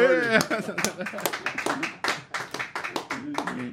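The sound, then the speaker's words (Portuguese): Brisk hand clapping in a quick run of sharp claps, with voices talking and laughing over it throughout. “Palmas, senhor”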